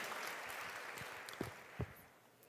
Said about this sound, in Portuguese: Pode aplaudir Jesus, é impossível.